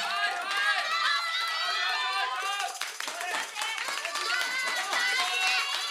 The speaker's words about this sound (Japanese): それにしてもすごい声援だなテレビのマラソン中継を見てるみたい。